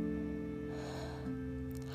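A soft, drawn-out inhale, a deep breath in lasting about a second, faint beneath a steady, sustained musical drone, with no one talking.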